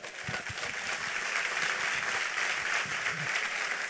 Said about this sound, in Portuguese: Pode aplaudir a ele.